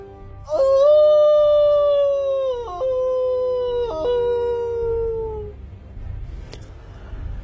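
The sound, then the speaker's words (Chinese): A she-wolf, staggering toward a trap, howls at the snowy sky: one long, loud howl lasting about five seconds, its steady mid-pitched tone stepping down slightly in a couple of places before fading over a low rumble. “母狼蹒跚的走向陷阱，对着白雪飘飞的天空，发出了刺耳长鸣。”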